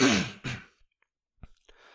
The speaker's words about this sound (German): Ich muss mich kurz äh, räuspern und äh, den Ton aus.